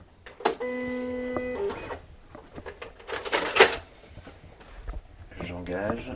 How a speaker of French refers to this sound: La machine, elle sert à quoi À découper. Ah, à découper. En fait, euh, à l'oral, ça se raconte comme euh, c'est comme une, imprimante en fait, mm. mais euh, c'est une lame qui pivote sur elle-même et qui va être guidée par les fichiers